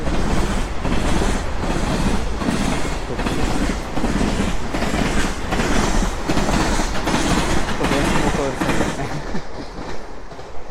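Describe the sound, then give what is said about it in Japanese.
A train rumbles past, loud and steady, heard while walking along the railway, its wheels clacking over rail joints in a regular rhythm before the noise starts to ease slightly at the end. “電車沿い歩いてどうしても、ね、あれなんですけど”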